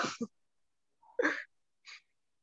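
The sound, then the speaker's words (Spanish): A sharp sneeze: a short rising breath bursting into a loud, noisy blast, framed by a brief breathy burst before and a softer puff just after. “Yo oí que dijiste salud.”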